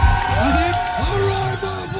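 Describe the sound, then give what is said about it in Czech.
An audience at a mullet hairstyle beauty contest cheers loudly as mullet owners show off on stage, with whoops and shouted voices rising and falling over a steady wash of audience noise and possible clapping, sustained for the whole moment. “Na pódiu se jeden po druhém předvádějí hrdí majitelé maletů, zatímco publikum kvalitu účesů oceňuje potleskem a křikem.”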